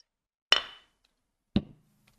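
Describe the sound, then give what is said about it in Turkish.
Two sharp knocks of an object banged down on a table, about a second apart, the first louder with a brief ringing tail, the second duller and thuddier. No one speaks. “Vurma şunu masaya ya.”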